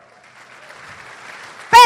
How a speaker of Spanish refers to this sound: Dese un fuerte aplauso por eso.